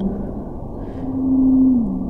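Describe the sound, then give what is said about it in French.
A sped-up Antarctic blue whale call: a steady low tonal hum that swells, holds, then slides down into a fainter lower note, over a constant rumbling background. “on vient d'entendre deux vocalises de ballettes Bleu Antarctique”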